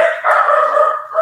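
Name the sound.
dog barking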